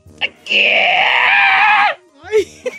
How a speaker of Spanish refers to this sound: Sí. Nomás que estoy gritando desde lo más profundo de mi ser, de mi ser.